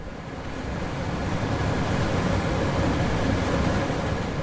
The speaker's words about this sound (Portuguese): Este é o som da sala de lavagens do Instituto de Medicina Molecular, uma das mais importantes divisões dos bastidores de um laboratório científico.